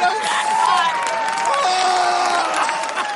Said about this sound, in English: the audience had erupted into cheers of joy